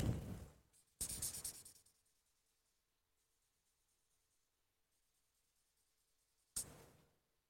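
Chalk or marker scratching across a board in short bursts as the word "hören" is written: two quick strokes together at the start, a long pause, then one more brief stroke near the end. Fairly loud, no voices.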